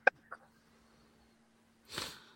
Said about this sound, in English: I am uh, sorry, I'm sniffing.